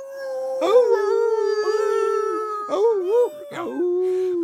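A voice imitates a wolf howling at the moon: long, drawn-out, wavering tones that rise and fall, broken by a couple of short breaks, loud.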